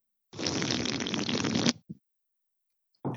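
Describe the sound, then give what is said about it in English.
A Heineken beer being opened: a loud, sustained fizzing hiss for over a second, a brief follow-up burst, then another noisy burst starting after a short silence. “It's the same one as last show. It's a Heineken.”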